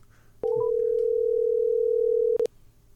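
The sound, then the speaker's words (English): A steady, loud telephone dial tone holds for about two seconds as a phone call is placed, starting and ending with sharp clicks as a line is picked up and dropped. No one speaks. “We're going to give him a call right now.”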